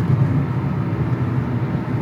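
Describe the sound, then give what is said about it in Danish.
Steady low rumble of a car cabin on the move while driving through Zealand, Denmark, a continuous engine and road drone that stays even throughout with no voices or distinct events on top. “Og øh, normalt har du studiet for dig selv, men nu sidder vi her i en bil på vej igennem øh, Sjælland.”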